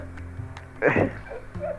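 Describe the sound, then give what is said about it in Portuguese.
A person imitates a dog barking: one loud, short woof, followed a moment later by a softer, briefer yip. “É verdade, eu era o cachorro.”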